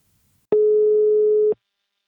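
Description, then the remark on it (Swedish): A single steady telephone ringing tone as a call is placed to a partner company, sounding for about one second, clear and loud, starting and stopping abruptly with faint clicks, with silence on either side and no voices. “Nu tar vi en kort paus och ringer upp min samarbetspartner Invacare.”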